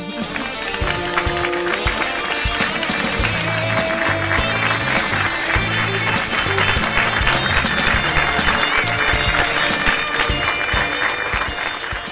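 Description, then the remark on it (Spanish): A canned applause sound effect from Windows 98: dense, steady crackling clapping at an even loudness for about twelve seconds, with faint low tones pulsing underneath. “dale, pongo el aplauso. Viene de Windows 98, un aplauso re poronga.”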